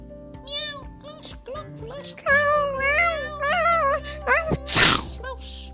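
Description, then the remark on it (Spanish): Several high-pitched kitten meows rise and fall in quick, overlapping succession, fairly loud, ending with a short sharp burst like a tiny sneeze. “¡Gatitos!”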